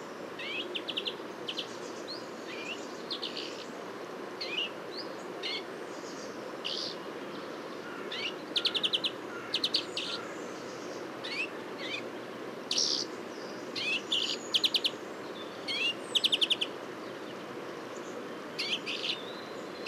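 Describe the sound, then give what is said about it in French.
A blue tit sings in short bursts of high, thin notes and quick trills, scattered irregularly over a steady background hiss, with no one talking. “petit champ de mésange bleu”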